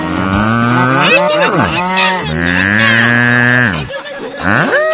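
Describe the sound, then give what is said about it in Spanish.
A voice imitates a cow mooing, letting out several loud, drawn-out moos with sliding pitch, one long steady call in the middle, and ending with a shorter rising moo. “La vaca trivi, la vaca trivi, tiene cabeza y vuela. Y hace...”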